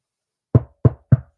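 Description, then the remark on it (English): Three sharp, hollow knocks on a wooden surface, evenly spaced, each one dying away quickly in otherwise silent surroundings. “knock on wood, because I almost jinxed them”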